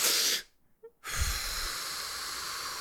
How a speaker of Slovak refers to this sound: to je presne to super, že aj čo robia speakery, že, že ten nádych, buď hlboký nádych